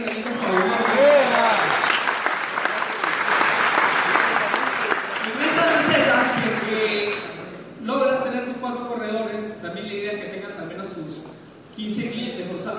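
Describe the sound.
An audience breaks into steady, dense applause lasting several seconds, then it fades out as a man starts talking.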